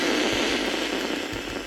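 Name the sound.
radio static hiss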